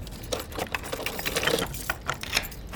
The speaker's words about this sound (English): Oh, I hear a door.